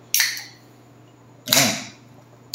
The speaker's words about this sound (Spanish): abriendo una lata de deliciosas bebidas. El elixir de la vida. Lupulosas, espumosas.